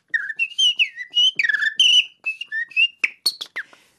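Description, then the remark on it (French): A person whistles an imitation of a blackbird's song: a lively run of fluting phrases, rising and falling notes with quick chirpy flourishes at the end, clear with no talking. “le merle noir, c'est vous”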